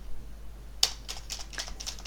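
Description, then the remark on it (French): Typing on a computer keyboard: after a brief quiet moment, sharp key clicks begin and continue in an irregular, quick tapping pattern, fairly quiet, with no voices. “dans notre émission Underscore, encore une fois, nous ne serons pas sains d'esprit et nous taperons sur le clavier une mélodie de synthèse, en encensons ensemble les touches magiques.”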